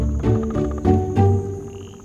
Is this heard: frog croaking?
yes